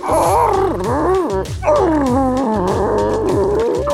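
A dog growls and yips almost continuously, loud, its wavering whiny cries rising and falling over a steady pulsing rumble underneath.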